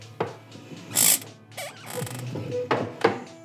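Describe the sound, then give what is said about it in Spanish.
A professor's chair creaks and rustles as he shifts and settles back into it, with several short squeaky bursts and scraping noises spread over a few seconds, no voices. “El profesor se acomoda de nuevo en su silla y abre un nuevo documento.”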